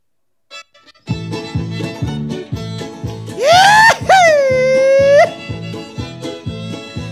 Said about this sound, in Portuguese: a banda que está tocando é uma banda que se chama …, que é uma banda legal aqui de Bluegrass